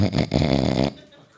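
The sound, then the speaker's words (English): A person imitates mouth snoring with one loud, raspy, rattling snore lasting under a second, then it cuts off abruptly into quiet. “You're, you're a mouth snorer.”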